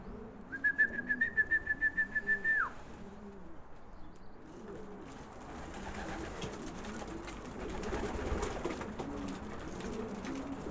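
A man gives a loud, trilling whistle lasting about two seconds to call pigeons, then the birds keep cooing softly and steadily against a murmuring outdoor background.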